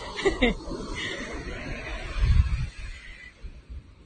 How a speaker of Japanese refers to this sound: 波の音心地よい。